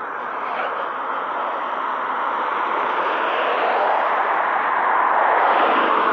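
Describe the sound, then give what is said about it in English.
A steady, loud roar of car traffic on a busy main road at seven o'clock on a Monday morning, continuous and washing over everything, swelling slightly louder toward the end with no voices present. “I'm just going to enter the main road here, so excuse the car sound.”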